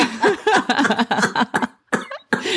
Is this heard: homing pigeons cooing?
no